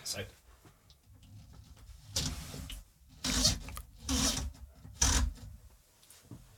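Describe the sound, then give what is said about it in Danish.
Muffled handling noise as a microphone is turned over again: four loud bursts of rubbing and scraping, each about a second long, separated by quieter rustling and bumps. “Så nu kan det være, der lige kommer en nederen lyd, men nu prøver jeg lige noget, øh, for jeg har vendt den om en gang.”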